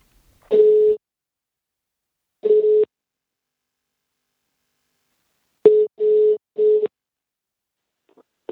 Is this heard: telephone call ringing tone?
yes